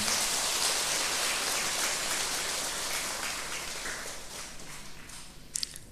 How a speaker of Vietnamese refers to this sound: dành một tràng vỗ tay thật lớn để tán dương chung